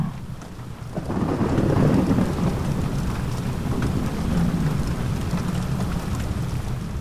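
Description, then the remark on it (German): A steady wash of rain with deep, rolling thunder swelling in after the first second and rumbling on continuously, full; no voices. “Lass dich auf den beruhigenden Geräuschen des Gewitters tragen.”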